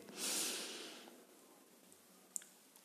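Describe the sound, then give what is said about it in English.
A single deep breath drawn in sharply through the nose, airy and hissing, fading out after about a second, followed by quiet with a couple of faint clicks. “Now I'm now I'm breathing, right? Because we have to be humble and go with the rhythm.”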